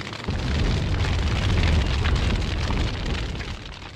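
A heavy MOAB bomb explosion sound effect: a sudden loud boom that rolls into a sustained, deep rumbling roar with crackling debris, slowly fading over about four seconds, with no voices.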